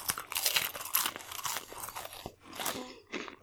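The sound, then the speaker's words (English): Loud crunching of crackers being chewed, a rapid series of crisp, dry bites and grinding crunches filling the few seconds with brief pauses, no talking. “Apparently, these are so crunchy that I can't actually hear everything you're saying.”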